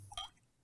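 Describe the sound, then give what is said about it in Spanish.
A drink being poured into a glass: a brief, quiet gurgle of liquid with a bright, rising ring lasting only a moment, then fading into soft room noise. No one speaks. “Te serviste, más. Déjame, déjame hacerlo justo también.”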